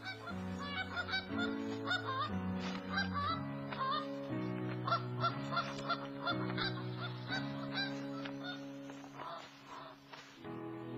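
Repeated nasal goose honks, wavering and fairly loud, sound over a steady musical background of sustained low tones that shift pitch in slow steps; no one speaks.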